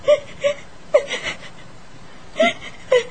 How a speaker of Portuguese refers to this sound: Por que está chorando? É que estou com saudade da minha família.